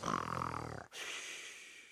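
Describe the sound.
A pig snores in its sleep: one rough, buzzing snorting inhale with a low harmonic grunt, then a long, soft breathy exhale hiss. No one speaks.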